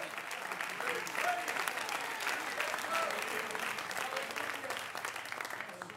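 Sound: audience clapping hands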